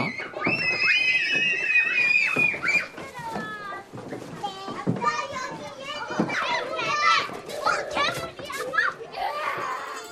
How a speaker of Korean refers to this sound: 놀이터에서 마구 뛰어노는 아이들의 소리 오늘의 소리로 만나봤습니다.